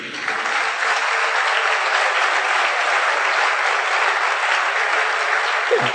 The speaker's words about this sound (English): Yeah. Clap for yourself this evening.